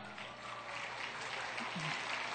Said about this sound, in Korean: 박수 큰 박수.